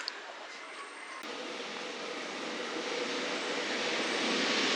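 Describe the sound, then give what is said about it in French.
A double-decker RER A commuter train pulls in to the platform: a broad, steady rumbling roar that swells gradually as it arrives, with no voices heard over it. “Le RRA arrive sur le quai.”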